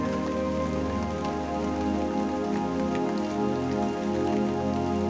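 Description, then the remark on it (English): Steady rain patters against a window pane, a continuous soft hiss of droplets that never lets up, with a low sustained tonal hum underneath. No one speaks. “The droplets fall down the window pane.”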